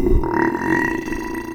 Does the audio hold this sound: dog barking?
no